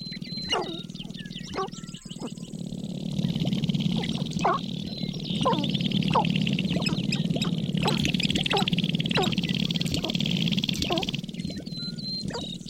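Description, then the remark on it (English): A gang of sharp-tailed grouse facing off across territorial boundaries on their display ground at the Clark Salyer National Wildlife Refuge, North Dakota, trading sharp clucks, pops and chattering calls in quick overlapping bursts over a steady low cooing drone, continuous throughout. “Lang Elliott captured the creature's hollow wallop, liquid sputtering, and harsh chew as a gang of birds faced off across territorial boundaries”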